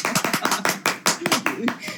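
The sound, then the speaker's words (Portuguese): A person claps their hands while standing, about ten sharp, slightly uneven claps in quick succession, with a voice faintly audible underneath. “Tô aqui aplaudindo em pé.”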